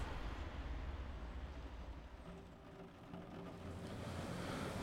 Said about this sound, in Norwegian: det er en glede å ha deg og klitorismodellen din her på besøk i Samtidens drivhus, der regnet trommer litt mot eh, taket.